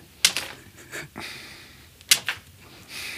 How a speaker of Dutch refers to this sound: En het is een beetje strelen wat je nu doet eigenlijk. Ja, en een beetje heel zachtjes slaan. Dan kan die vast een beetje wennen aan de zweep.